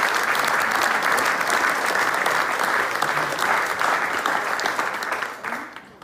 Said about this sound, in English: So a huge round of applause, please